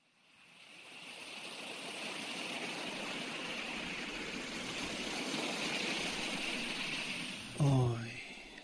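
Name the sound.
sea waves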